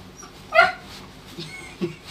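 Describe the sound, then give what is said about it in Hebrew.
A dog lets out a sharp, high-pitched yelp, a single loud cry with a short whiny tail, followed by quieter faint noises and a brief softer sound near the end. “ראית אה, איזה צרחה הוא הביא?”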